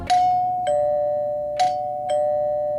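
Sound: doorbell ringing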